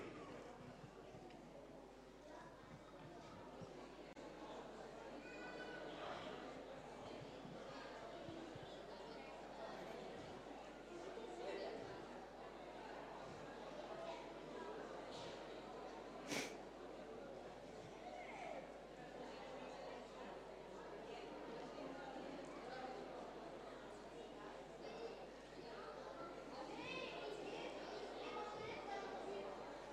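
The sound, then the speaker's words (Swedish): An audience in pews talking quietly among themselves for 30 seconds, sharing ideas about showing God's love to others: a steady overlapping reverberant murmur of many voices, with a few soft knocks and shuffles underneath. “Alltså på ljudet och avgöra så här så måste ni ju ha fantastiskt mycket bra idéer.”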